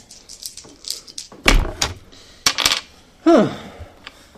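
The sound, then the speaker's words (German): Rattle and clatter of three dice being gathered and dropped onto a hard surface, with a few sharp bursts of tumbling clicks and small knocks in between. “Ich habe drei Würfel genommen.”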